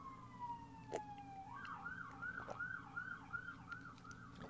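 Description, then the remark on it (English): An emergency siren wails outside, a falling tone giving way to a steady up-and-down warble, over a low rumble of traffic. No one speaks. “Sirens on my ends.”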